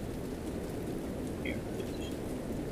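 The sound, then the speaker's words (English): Heavy rain from a storm pours down steadily, filling the gutters in seconds, a dense continuous roar of drops with no pauses, fairly loud, with a few faint high chirps briefly poking through. “Jeez, this rain is biblical.”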